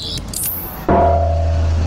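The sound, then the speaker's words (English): A few brief rattles and scraping clicks as a golf cart is taken, then its small motor abruptly starts up and settles into a steady, loud electric hum that carries on to the end. “Just stealing this car. Is it a car? It's more of a golf cart thing, but let's go with car.”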